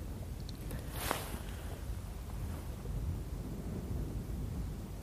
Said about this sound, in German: Ist gerade schwer zu sagen, weil auch ein bisschen Wind ist.